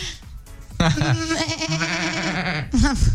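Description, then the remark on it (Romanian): A person imitates a sheep's bleat with a long, wavering, nasal vocal cry lasting about two seconds, loud, followed by a brief shorter bleat-like sound at the end. “Animale și, uh, dacă, dacă nici eu nu știu în legătură cu oile, cum face oaia?”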